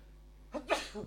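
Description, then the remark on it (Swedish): A single sneeze bursts out after a quiet moment, a sharp inhale followed by a loud explosive release and a short trailing breath. “Prosit.”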